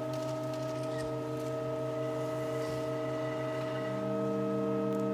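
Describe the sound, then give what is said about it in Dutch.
A sustained organ chord, a triad, drones steadily with several held tones stacked together. Partway through, the first added organ pipe joins the unchanging chord with one more pipe tone. No voices are heard. “En dan gaan we luisteren naar de eerste orgelpijp die erbij geplaatst wordt.”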